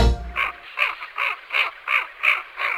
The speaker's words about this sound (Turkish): Dinlediğiniz su kuşu Fiyu'nun sesi. Boyu ortalama 50 santimetre, ağırlığı 1 kilo kadar. Ortalama yaşam süresine bakıldığında 33 yıl 7 ay yaşayan bir fiyu olduğunu görüyoruz. Tek eşli ve göçmen bir kuş.